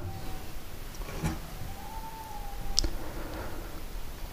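A faint, distant howl from neighbouring dogs: one long, drawn-out tone that wavers and rises slightly, heard alone against quiet background noise with a couple of soft clicks.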